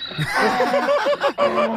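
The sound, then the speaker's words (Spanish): A donkey brays loudly: a rough, harmonic call with rapid rising-and-falling swoops, a short break, then one more strained burst. No speech. “Hasta el burro rebundó.”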